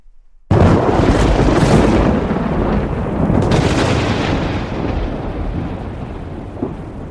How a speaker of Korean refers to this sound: 때 아닌 천둥번개가 심하게 치자 명종은 깜짝 놀라서 바른 마을을 널리 구한다는 의미의 구원교지를 내리게 됩니다.